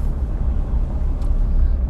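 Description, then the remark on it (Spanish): A car engine rumbles low and steady, with a brief airy hiss partway through, as the vehicle comes to a stop. “El carro se ha detenido y yo también.”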